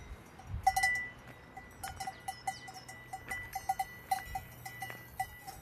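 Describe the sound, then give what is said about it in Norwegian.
Scattered clanking of cowbells and lighter sheep bells ringing irregularly in open air on an alpine mountain pasture with a few mountain farms and green meadows, away from road noise, with an occasional bird, a quiet outdoor background and no voices. “Vi er borte fra veistøyen og bare kubjeller og en og annen sauebjelle og en fugl er å høre.”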